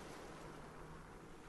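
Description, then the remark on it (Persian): Sea waves wash against black rocks in a steady, continuous roar with no distinct individual crash, fairly quiet, with a low rumble and a faint windy hiss, and no voices. “مسیر کوتاهی رو به سمت روستای کناری و های سیاه مرموز و مخوفی طی میکرد که موجا مثل پتک بهش میخوردن”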